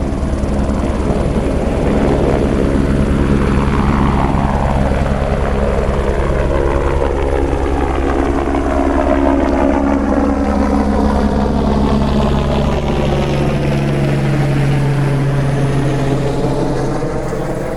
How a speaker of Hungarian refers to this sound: A férfiak szétfutottak pilóta gázt adott. A motor felbődült, a rotorok szele, mintha az egész épületet maga alá nyomta volna.